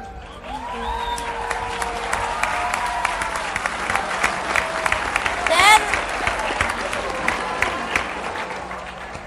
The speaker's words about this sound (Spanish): El aplauso fuerte, muy fuerte para los niños del semillero creativo de teatro y fotografía de Amalco Volpín.